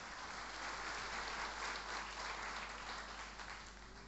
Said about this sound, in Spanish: ¿Cuánto lo aplauden a Dios y le dicen, gracias Señor, porque Él es el varón de dolores?